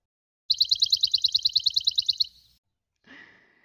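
A bird in a yard sings a fast, steady trill of about a dozen and a half bright, high chirps, then pauses and gives one short, thinner call. The song is clear, with no talking.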